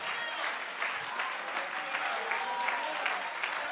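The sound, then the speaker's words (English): A church audience claps their hands together, a dense, steady wash of many overlapping claps for a few seconds at an even, lively level. “If you're ready to receive what God has for you, clap your hands one more time.”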